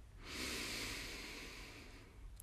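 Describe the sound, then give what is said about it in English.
A long, steady inhalation taken during a guided breathing exercise, an airy hiss that swells quickly and holds for about two seconds before easing off slightly, heard alone with no talking. “Why don't we start off with a nice, deep, big breath in?”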